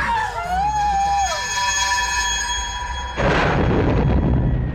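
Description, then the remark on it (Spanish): Eerie wavering tones drift for a few seconds, then a huge explosion bursts inside a church and keeps roaring loudly with a dense, rumbling crackle until the end. “Una explosión enorme se escuchó dentro de la iglesia.”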